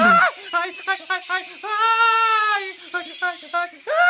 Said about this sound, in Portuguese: Alguém parece estar gritando.